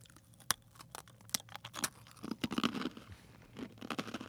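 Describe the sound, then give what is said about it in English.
Sharp, crisp crunches as someone bites into a crunchy, salted pretzel in the classic twist shape, a handful of distinct snaps followed by steady, grinding chewing, all fairly quiet with no talking. “Um, mine, my pretzel has lots of deep grooves.”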